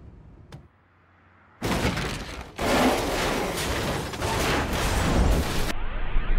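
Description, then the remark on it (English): A taxi cab driven by Jamie Foxx's character in a film scene violently crashes and flips over, with a sudden burst of crunching, scraping metal and breaking glass lasting several seconds after a quiet moment, loud, with no one speaking. “So yes, yeah, so Jamie Foxx goes off the rails, crashes the cab, and I love that scene though.”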